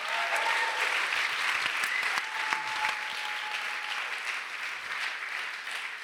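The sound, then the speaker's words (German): Sustained audience applause, a dense steady wash of many hands clapping at an even level for the full six seconds, with no one speaking over it. “Dürfen wir noch einen riesen Applaus geben?”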